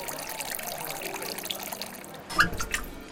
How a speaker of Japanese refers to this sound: 水曜の夕暮れ時にオープンする水道水だけを提供する水飲みバーマスターが手慣れた手つきでグラスに水道水を注ぎ